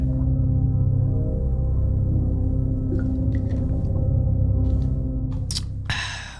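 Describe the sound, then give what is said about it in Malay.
Someone drinks water right against the microphone: a muffled, low gurgling swallow continues for several seconds with a few small wet clicks, then a short breathy burst at the end. “saya dah Cuba untuk minum air kan Kita, kita minum sikit lagi Sekejap eh”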